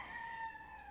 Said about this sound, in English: there's that rooster in the background.